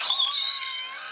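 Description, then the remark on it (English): A person imitates an old cartoon man's wheezing laugh: one high, breathy, strained squeal held for about a second, fairly loud, with no talking. “I don't know if you could call it a quote, but me and my brothers would always do his like when you see his teeth and he does the like wheeze”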